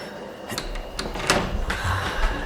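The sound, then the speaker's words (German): An unlocked door in a ghost train ride being opened: a handful of sharp clacks and rattles over about two seconds, followed by a scraping, slightly creaky sweep, moderately loud with no voices. “Tür nicht abgeschlossen ist.”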